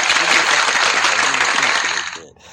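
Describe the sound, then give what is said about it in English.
A crowd claps loudly for themselves in a dense, sustained burst of applause that fades out quickly near the end, with faint voices mixed into the noise. “So give yourself an applause.”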